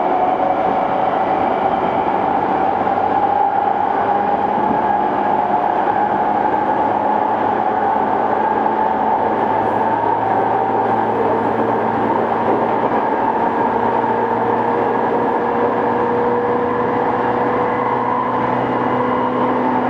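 A Tokyo Waterfront Area Rapid Transit (Rinkai Line) 70-000 series train runs steadily between Shin-Kiba and Tokyo Teleport: a loud, continuous rumble with sustained motor whine tones that slowly shift in pitch, with no voices present.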